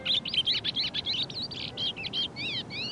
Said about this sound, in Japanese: どこかで鳥が